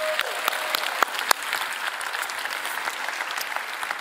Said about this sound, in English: Let's get all, let's give our visitor a big hand. God bless y'all.